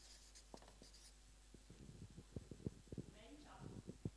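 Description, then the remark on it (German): Pen or marker scratching and tapping quickly across a surface as someone notes down words called out by a group, a run of short strokes, with faint voices murmuring in the background. “Darf ich ein paar von diesen Wörtern, die euch in den Sinn kommen, hören und ich würde es hier notieren.”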